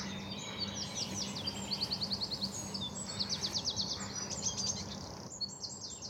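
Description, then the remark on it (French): A tiny, ball-shaped bird with a short tail and a very pointed beak sings loudly, pouring out high, rapid trills and sharp chirps in quick repeated bursts over a steady low background hum. “Et en plus, il a un volume sonore qui euh, qui est très très fort par rapport à la taille qu'il a en fait.”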